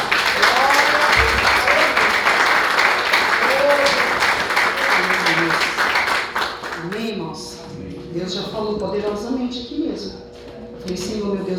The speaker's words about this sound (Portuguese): E as palmas adorem a Jesus.